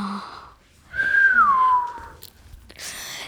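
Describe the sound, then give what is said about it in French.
A person whistles one sustained note that slides downward in pitch over about a second, clear, with soft breathy noises before and after. “Je vais vous parler du sifflement.”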